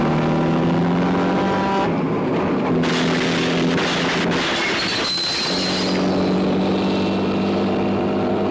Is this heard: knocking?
no